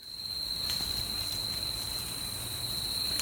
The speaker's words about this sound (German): Da klingt es jetzt trockener, finde ich. Ja, und auch viel leiser, ne? Ja, ein bisschen ruhiger. Ja, also viel weniger. War das eher tagsüber? Genau, das war mitten am Tag und das war in einem Nebelwald.